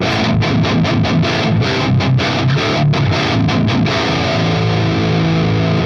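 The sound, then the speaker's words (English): Heavily distorted electric guitar with a gain pedal engaged plays loud, tightly chugged rhythmic bursts with brief choppy gaps, then settles into sustained, saturated chords with no talking. “Um, it also does something else. Uh, not it's not just more gain.”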